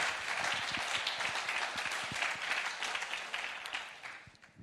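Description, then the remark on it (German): An audience applauds steadily to thank its small group leaders, many hands clapping in a dense, sustained wash of sound that stays fairly even before tapering slightly at the end, with no voices over it. “Einen riesen Applaus geben.”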